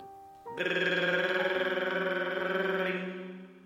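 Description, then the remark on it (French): A telephone rings with a single sustained, trilling burst of about two and a half seconds, loud, then fades out. No voices are present. “Soudain, le téléphone sonne.”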